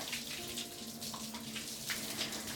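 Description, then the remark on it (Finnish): Shower water runs in a steady hiss, running down between a person's shoulder blades and along the arms and dripping from the fingertips, with a few brighter splashy spots and a faint low hum underneath; no one speaks. “Vesi valuu pitkin käsivarsia ja tippuu sormenpäistä.”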